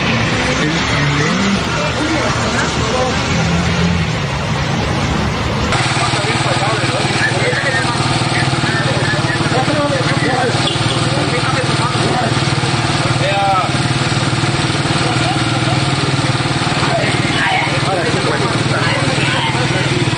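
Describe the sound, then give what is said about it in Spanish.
A rough, worn-sounding car engine, in need of reboring and with its tappets audible, runs loudly and steadily for about twenty seconds, its droning roar dense and unbroken, with indistinct voices mixed in underneath. “pero lo que sí le hace falta es llevar a encamisar su auto, porque si ese era el motor, se le oyen las punterías.”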